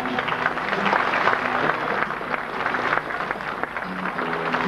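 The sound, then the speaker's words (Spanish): A crowd claps steadily for several seconds, a dense, continuous patter of many hands, holding an even loudness throughout with no voices standing out. “gracias por esas palmas que me están llegando al alma y rubricando mi anhelo.”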